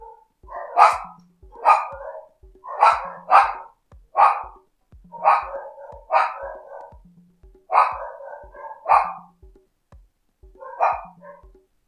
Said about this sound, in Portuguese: E agora na rua tem cachorro latindo, eu não vou parar.